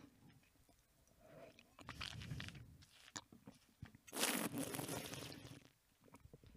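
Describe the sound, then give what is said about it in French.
Wet mouth sounds of a first sip of wine being swished and chewed during a wine tasting to coat the whole tongue, irregular smacks and gurgles, then a louder airy slurp lasting about a second before quieter chewing resumes. No one talks. “Alors, quand j'ai mis le vin dans ma bouche, tout d'abord, je l'ai mâché.”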